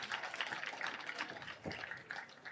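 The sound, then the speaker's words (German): A crowd applauds steadily while a man makes his way onto a stage, a dense, even wash of many hands clapping that keeps going without pause, fairly soft overall, with a brief low thump partway through. “Das dauert jetzt ein bisschen, bis er auf die Bühne kommt, aber trotzdem applaudiert einfach weiter.”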